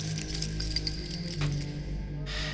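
A bunch of keys jingles and clinks together on a ring, fairly loud, with continuous metallic rattling for a couple of seconds over a low steady hum, as someone fumbles through the keys to find the right one for a door.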